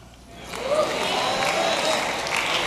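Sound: audience shouting and cheering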